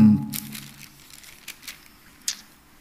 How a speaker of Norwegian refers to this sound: Vi blar videre i Efeserbrevet